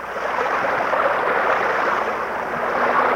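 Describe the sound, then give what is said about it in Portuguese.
Sewage from the city of Barra Bonita pours steadily into the Tietê River, a continuous loud rushing and splashing that stays even throughout, with no voices. “Esse barulho é de esgoto.”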